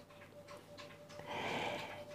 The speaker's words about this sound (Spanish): Mi perrita está bebiendo, que es lo que escucharéis de fondo.